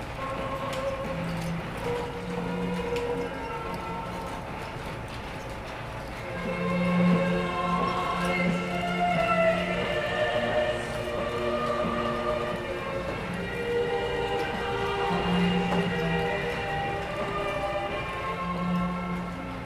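Motorized machinery of a mechanical display scene, driven by three motors, runs steadily, gradually moving its roughly 70 figures, including one of Pope John Paul II: a continuous mechanical whirring hum with layered tonal drones and soft clattering, getting slightly louder partway through. No one speaks.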